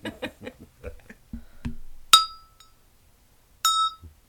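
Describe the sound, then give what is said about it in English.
A small bell is struck twice, each time a bright, high metallic ring that fades out over about half a second. A series of short vocal bursts comes before the first strike. “messing with the bell”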